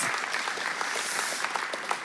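Steady audience applause, a dense wash of many hands clapping at once with a few sharper individual claps standing out, sustained at moderate loudness with no talking.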